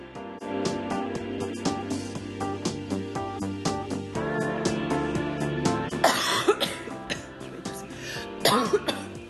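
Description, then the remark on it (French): Two short, harsh coughs burst out near the end, fairly loud, over a steady bed of melodic background music with a regular beat. “Merci de me confirmer que tu voulais tousser parce que je n'ai pas compris.”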